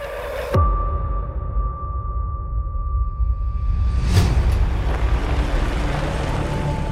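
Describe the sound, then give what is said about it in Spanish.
A car's engine rumbles steadily, with a brief whoosh of movement partway through, as the car pulls in and parks at a hospital. No one speaks. “Luis Estacionó el auto y bajó con la niña en brazos casi corriendo”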